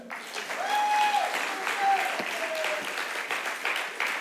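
A room full of people claps steadily for several seconds, dense and continuous, with a few whistles rising over the applause.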